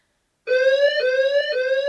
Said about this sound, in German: Bis zu dem Abend, als die Alarmanlage ansprang.